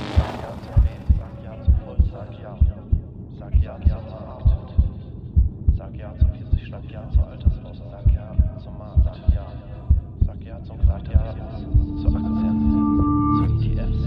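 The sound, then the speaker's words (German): A steady heartbeat thumps in a regular rhythm throughout, over a low continuous humming drone, with a brief tonal hum swelling near the end. “Mein Puls ist normal.”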